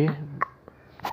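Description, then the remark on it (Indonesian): A baby hiccups softly, a few short, separate hiccups spaced about a third of a second apart, following a brief voiced sound at the start, all quiet. “dadah dadah mana cekukannya dadah eh, selesai ya eh masih”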